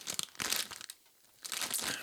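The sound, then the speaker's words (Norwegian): A bag of Takis Fuego snacks crinkles loudly as it is opened, in two bursts of crackly, rustling plastic separated by a brief quiet pause, with no one speaking. “Da vi skal kaste oss over neste, da er det litt snacks. Enda litt mer ASMR altså her.”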